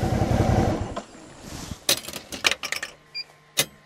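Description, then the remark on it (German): A low motor rumble fades into a parking ticket machine at a visitors' car park in the eastern Harz, Germany: a burst of sharp mechanical clicks and clatter, a short electronic beep, then one final clack as the ticket comes out. “Da zahlt man am Besucherparkplatz gern ein Parkticket, selbst Motorradfahrer müssen ein Ticket ziehen.”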